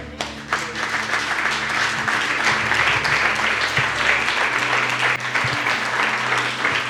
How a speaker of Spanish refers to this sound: Aplauda su nombre.